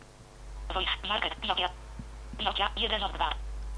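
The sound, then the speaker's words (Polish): The Nokia HQ (TTS Marta) synthesized screen reader voice speaks two short phrases separated by a brief pause, sounding thin and narrowband over a steady low hum. “No i jak, tak jak mówię, mamy do wyboru Nokia HQ, czyli TTS Marta, który teraz słyszymy.”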